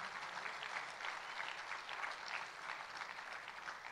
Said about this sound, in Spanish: Dele un fuerte aplauso a Él.